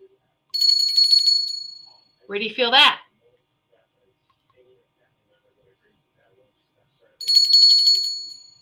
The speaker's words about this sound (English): But this is, you know, one of those um, replica touristy you know, the 1776 bell, the, the Liberty Bell, right?